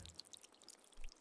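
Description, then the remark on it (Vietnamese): Water dripping drop by drop at midnight downstairs in a house, a quick scatter of small, bright plinks over a faint low rumble, quiet, with no voices. “Ban đầu nước lợp đợp nhỏ từng giọt rồi sau đó rào rào như nước vỡ”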